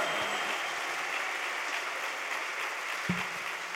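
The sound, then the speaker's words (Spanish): An audience breaks into sustained, dense applause for God, a steady wash of many hands clapping at once for the full few seconds, loud and even, with no clear speech rising above it. “Grítele a Dios, dele aplausos al Señor.”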